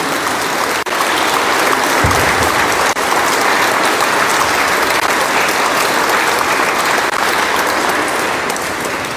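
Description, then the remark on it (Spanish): Sustained audience applause, a dense, steady wash of clapping hands that stays loud and even for the full nine seconds, with no voices rising above it, given to encourage people who will work on behalf of the community's adolescents. “Bueno, pues les damos un fuerte aplauso y los animamos a trabajar en favor de nuestros adolescentes.”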